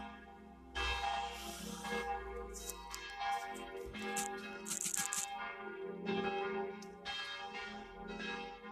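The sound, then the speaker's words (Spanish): Church bells toll in a dense, ringing peal, several strikes overlapping so their bright, shimmering tones blend into a continuous wash that swells and fades for several seconds, with no voices. “¿qué hacen? Tañen.”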